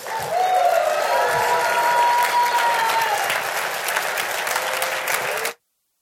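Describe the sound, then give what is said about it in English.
A church audience bursts into steady, loud applause with cheering and a few whistles mixed in, welcoming a staff member, sustained for about five seconds before cutting off abruptly. “So uh, let's welcome Dave again with a big cheer and.”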